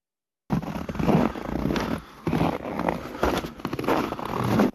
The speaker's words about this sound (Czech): Zmrzlý sníh křupe pod nohama, ale lidé se v lednu daleko nedostanou.